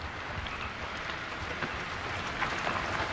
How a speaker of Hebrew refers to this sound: יורד גשם. רק אצלה.